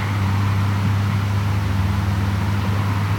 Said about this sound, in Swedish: Vägen går ju precis utanför kyrkogården. Det är rätt mycket trafik ändå. Det är ju väg 30.